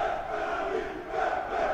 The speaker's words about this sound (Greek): οι φίλοι του ΠΑΠ φωνάζουν πέναντι, πέ, πέ, πέναντι, πέ, πέ, πέναντι.